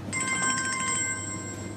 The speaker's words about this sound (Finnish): Puhelin soi.